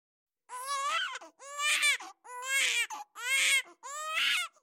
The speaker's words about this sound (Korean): 그날 달이 사라지고 붉은 기운이 하늘에 가득했다고 막 태어난 아기 울음소리는 붉은 기운이 가득한 세상 밖으로 퍼져나갔다고 했다.